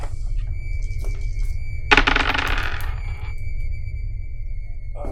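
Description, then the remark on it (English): Four dice, two positive and two negative, clatter onto a hard table in a quick burst of bright rattling clicks that settle within about a second, over a steady low hum with no one speaking. “Will you roll for me?”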